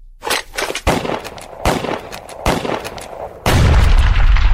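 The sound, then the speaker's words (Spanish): A gunfire sound effect: several sharp, loud shots cracking at irregular intervals, followed by a heavier, sustained rumbling blast at the end. No one speaks. “¿Qué pasó con la metralleta? No, hoy no me ajustó el dinero para las balas.”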